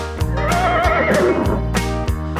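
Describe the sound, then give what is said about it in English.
A horse whinnies in a long, wavering neigh that rises and falls, heard clearly over a steady, rhythmic low thumping backdrop, as horses gallop around a farm. “Right, the horses go as they gallop around the farm.”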